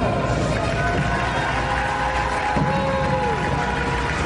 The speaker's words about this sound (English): when Lia's name was announced, crowd reaction was noticeably quieter